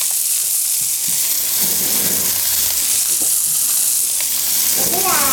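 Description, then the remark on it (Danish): Steady, loud sizzling of noodles frying in a hot pot, a dense crackling hiss with faint scraping stirs and a brief high squeak near the end. “Jeg tror da, de er færdige her, dine nødler.”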